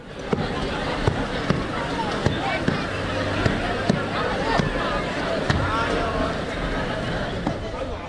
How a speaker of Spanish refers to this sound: En esta grabación de los Sanfermines de 2019, los últimos festejados antes del estallido de la pandemia, escuchamos a los Kilikis en acción. Son personajes parecidos a los cabezudos de otras localidades cuya misión también es perseguir a los chiquis